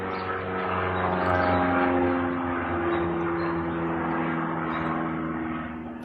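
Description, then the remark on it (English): A steady, droning engine roar of a low-flying propeller plane passing outside, with sustained harmonic hum and broad rumble holding at a fairly loud level throughout, no voices. “Um, lots, some noise outside with a low flying plane.”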